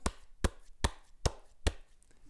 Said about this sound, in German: das ist der 0 Grad Winkelklatscher. Da werden also beide Hände flach, ja, äh, einfach aufeinander geführt. Mhm, Finger an Finger.